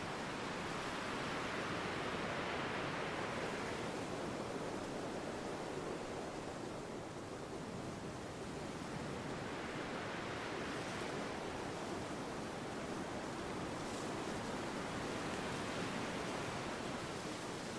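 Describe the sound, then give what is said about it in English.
Steady roar of ocean surf as a wave tips and crashes, dissolving into a frenzy of hissing sea foam, swelling in broad surges, continuous with no voices. “The white horse turning imminently into a frenzy of sea foam and noise.”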